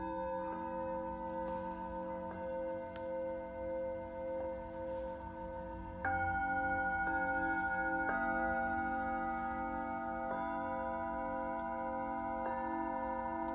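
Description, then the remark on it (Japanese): Tibetan singing bowls played in a live sound healing session ring with long, sustained shimmering tones, fresh strikes layering over lingering hum at a steady, unhurried pace; the sound swells fuller partway through and stays resonant. “Tibetan Singiing Bowl のサウンドヒーリングLIVE”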